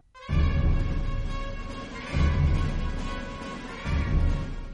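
Dense orchestral music from the Enemy at the Gates film soundtrack, with sustained high strings and heavy low swells that surge roughly every two seconds, a brooding recurring four-note figure played loud and full with no voices.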